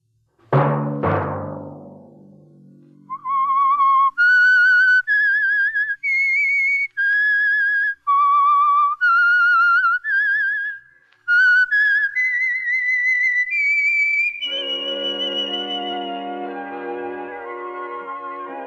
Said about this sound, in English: Let that whistle be your signal for the Signal Oil program, The Whistler, each Sunday night at this same time.